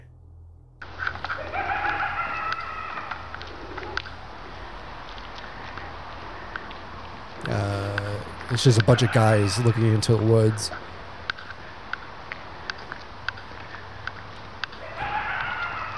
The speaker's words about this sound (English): Yeah, it's just coyotes. I used to hear them all the time at my parents' house. Sound like hyenas. Yeah, that too. yeah, it's just coyotes. But it does sound like a clown laughing, like an evil clown.